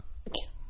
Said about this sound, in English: That was a sneeze. Sorry.